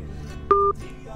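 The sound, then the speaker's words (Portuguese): A single short phone keypad beep, a steady two-tone chirp lasting about a quarter second, rings out clearly over a low background hum with faint, indistinct voices. “Tá tentando ligar ainda?”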